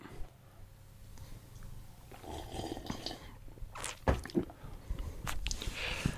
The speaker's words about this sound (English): Mm. Sounded like a sip. Juicy. Sounded more like a sip to me.